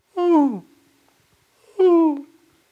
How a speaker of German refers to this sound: Das heißt, wenn man einmal weiß, wo diese Gabun-Viper liegt, dann ist es eigentlich keine Gefahr mehr. Deshalb machen sich Schimpansen gegenseitig mit einem leisen Warnlaut auf die Gefahr aufmerksam.